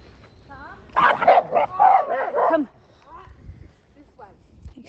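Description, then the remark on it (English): A second dog, approaching in a small wood on a sunny, windless day, barks in a quick, loud flurry of several sharp barks, then falls quiet apart from faint whines and rustling. “That's dog two trying to.”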